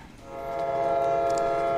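A train horn swells in and holds a steady, loud, layered tone against a low rumble of rail noise, with no voices present.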